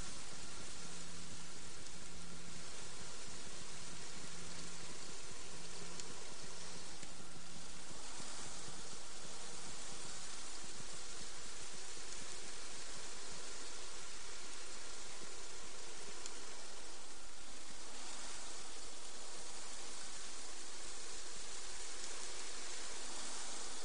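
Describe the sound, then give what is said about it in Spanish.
A steady, fine hiss of sand trickling down grain by grain onto a man, continuous and even throughout with a soft granular patter, and no voices. “mientras escucha únicamente el ruido de la arena cayendo grano a grano sobre él.”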